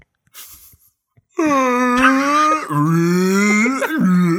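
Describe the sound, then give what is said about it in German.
A voice imitates Chewbacca's Wookiee growl: a loud, throaty, wavering moan that lasts about three seconds, its pitch sagging and lurching midway, after a moment of faint breathy noise. “Könntest du, jetzt gerade, wo du dieses Geräusch gemacht hast, könntest du vielleicht einen Chewbacca nachmachen und dann einfach Tschüss sagen?”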